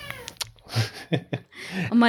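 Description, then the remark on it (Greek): Malouf, a four-year-old male cat, meows in a series of short, insistent calls, finishing with a longer, rising meow that is the loudest of the bunch. “ήρθε και το δικό μας τετράχρονο στην κυριολεξία, ο Μαλούφ ο, ο τετράχρονος γάτος μας. Ήρθε να μου κάνει παρέα”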